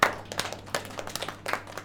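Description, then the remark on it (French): An audience applauds briefly, a soft patter of many hands with a few sharper claps standing out in an uneven rhythm, fairly quiet and with no voices over it. “On peut l'applaudir, oui.”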